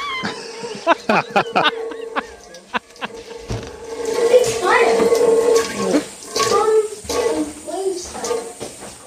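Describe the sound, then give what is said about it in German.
A few sharp clicks and knocks, then a toilet flushes: a loud, steady rush of water that swells and keeps gurgling until the end. “Oh nein, gehst du jetzt wieder auf Klo? Ah, das kann sein, ja.”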